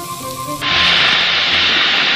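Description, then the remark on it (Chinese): In a kitchen, a loud, steady sizzle of food stir-frying in a hot wok bursts in after a brief quieter moment with a faint low hum. It then hisses on continuously without any talking. “一天，只听厨房里传来一阵爆炒的声音，”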